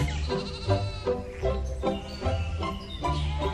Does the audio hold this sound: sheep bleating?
yes